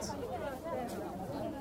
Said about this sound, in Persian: شما تصور بکنید که یک تصویر اکستریم لانگ شات دارین از بازار بزرگ تهران میبینید با اون جمعیت صدایی که میشنوید صدای جمعیت